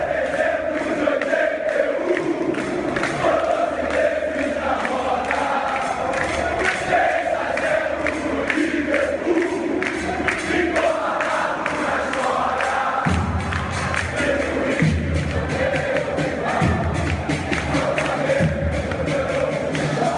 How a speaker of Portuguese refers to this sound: A torcida é. do Flamengo vai cantar aqui agora em dezembro de 81.